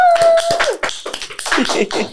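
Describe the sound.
A couple of seconds of steady hand clapping, dense and fairly loud, with a short vocal whoop or cheer at the start and some voices mixed in.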